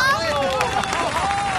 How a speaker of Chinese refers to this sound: 话音刚落，机舱内爆发了潮水般的掌声和欢呼声。